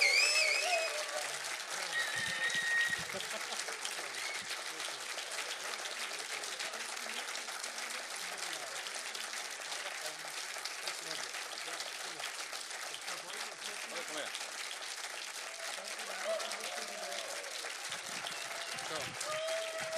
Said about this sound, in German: Wenn ihr, wenn ihr wollt, dass wir noch einen spielen, müsst ihr aufhören zu klatschen. Wir haben noch genau vier Minuten.